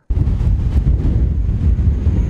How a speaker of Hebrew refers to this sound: העשן עוד מתעמר מעל העיירה, אבל פתאום יש גשם. הוא נמשך רק כמה שניות, אבל יורה שטף מטורף.